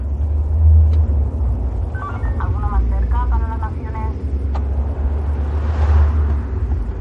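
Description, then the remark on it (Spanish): A taxi drives along the M30 highway in Madrid, Spain, with a steady, loud low rumble of engine and road noise throughout, while a voice speaks briefly over it partway through. “Un taxi circula por la M30 de Madrid.”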